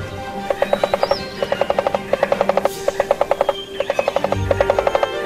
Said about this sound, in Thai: นกกันทคลากะไม่ฟังที่นกคธิรวริยะบอกมันลงมือใช้จะงอยปากเจาะต้นตะเคียนอย่างสุดแรงเกิดเสียงดังก้องป่าไปหมด